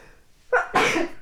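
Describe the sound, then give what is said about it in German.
A single sneeze: a short sharp intake at first, then a loud, bright explosive burst that trails off quickly, with no talking. “Gesundheit. Entschuldigung.”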